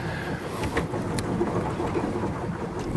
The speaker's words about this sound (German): Oh, Wind. Wollen wir drehen? Uiuiui, ja. Ho, ho, ho. War ein Wind.